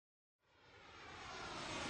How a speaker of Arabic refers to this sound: الطائرة تحلق والرحلة مستمرة